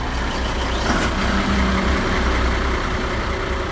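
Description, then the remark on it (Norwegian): A motorboat engine idles steadily, a continuous low rumbling drone with a faint hum on top, holding an even level throughout with no voices. “Eh, og i dette tilfellet så har vi f.eks. én motor. Men ikke nok med det. Vi legger også på en motor til.”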